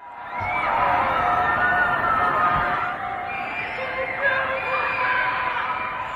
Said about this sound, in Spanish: Lo que oyes es gente gritando por la ventana, protestando, gente encerrada en su casa. Llevan semanas confinados.